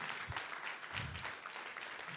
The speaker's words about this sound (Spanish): ¿Alguien está aquí conmigo? Pero denle un aplauso fuerte a alguien que lo entienda.